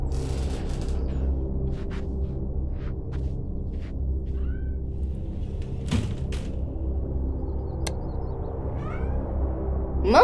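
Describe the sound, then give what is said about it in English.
A few short, faint cat meows come at scattered moments over a steady low rumbling hum, with occasional soft clicks and knocks, and a louder meow rising right at the end. “Did you eat my dinner, cat?”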